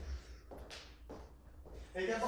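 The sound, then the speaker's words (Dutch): A few shuffling footsteps of a person walking a short stretch to show how they walk, roughly three soft scuffs at an even pace against a low background rumble, with a voice briefly starting at the end. “ja, ik zal eens een stuk lopen.”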